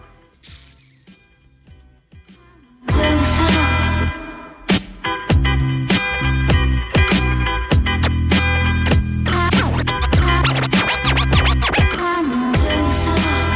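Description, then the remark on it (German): A rap song plays, opening with a quiet, sparse beat before a loud, bass-heavy groove with sharp turntable scratches bursts in after a few seconds and keeps driving steadily. “Okay, dann hören wir mal kurz ein bisschen Rap von dir an und dann reden wir weiter, okay?”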